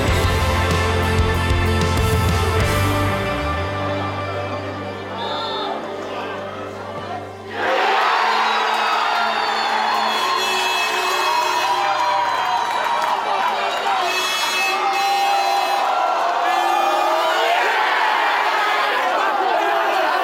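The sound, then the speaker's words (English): A crowd celebrates Guernsey's under-18 Muratti football win, its first Muratti win at any age group in four years, breaking into loud, sustained cheering and excited shouting, a dense roar of many voices that holds steady for over ten seconds after a brief low humming opening. “sound of Guernsey's first Muratti win at any age group in four years.”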